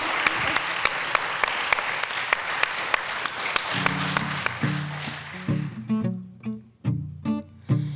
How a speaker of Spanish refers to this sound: Pues un fuerte aplauso, si es que no hay palabras. Muchísimas gracias.